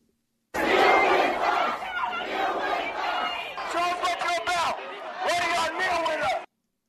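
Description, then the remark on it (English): A large crowd of protesters in Salt Lake City chants "Kneel with us" in unison, calling on police officers to kneel with them. Voices are loud, repeating in rhythmic bursts with brief pauses between rounds. “Kneel with us, kneel with us, kneel with us. That was the chant from protesters here in Salt Lake City.”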